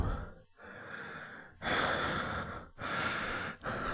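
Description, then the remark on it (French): Heavy, panting breaths of a man kneeling, panting with pleasure: about four long, loud inhales and exhales in a steady rhythm with brief pauses between them, and no talking. “Et je reste là, nu, à genoux et haletant gorgé de plaisir et de joie.”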